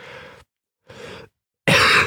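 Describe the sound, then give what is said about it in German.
Three harsh coughs separated by short silences, the last one loudest and most forceful, with no talking. “Die Hexe hustet.”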